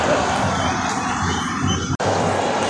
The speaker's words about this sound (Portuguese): Mas é isso, ó, sinta a emoção da torcida.